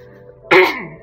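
A single throat clearing, one short rough burst that starts abruptly and trails off within half a second, standing alone against a quiet background with no talking.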